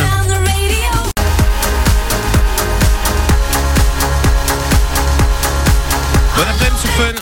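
A pop dance track starts up after a short swelling intro and a quick cut, then drives on with a steady pounding beat and bright synths, loud and close, with no voices over it.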